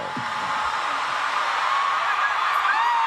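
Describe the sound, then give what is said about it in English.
A dense, steady roar of a large crowd of fans yelling and screaming, with a few higher shrieks rising above the wall of noise, loud and unbroken throughout. “That that that yelling would get to me though.”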